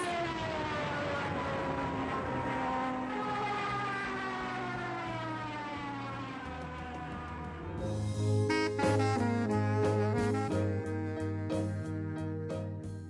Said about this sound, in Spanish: Entonces el zumbido se hace más fuerte. Los aviones ya casi llegan. Y cuando ya su figura ocupa el cielo de Buenos Aires, el tiempo se frena.